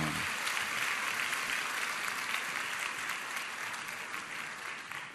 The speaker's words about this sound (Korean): 우리 일본의 예배 찬양팀에 다시 한번 격려와 축복의 박수를 보내겠습니다.